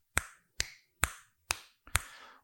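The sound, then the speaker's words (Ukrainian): Five crisp finger snaps ring out one after another at a steady, unhurried pace, each a sharp click with a brief tail and no voices around them. “Воно починало настільки швидко щолкати, що людина вже не могла цього зробити.”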